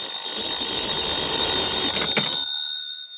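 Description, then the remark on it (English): An old-style telephone bell rings in one sustained, rattling burst for about two and a half seconds, then cuts off, leaving bright metallic tones hanging briefly. No one talks. “Your number's ringing now, Mr.”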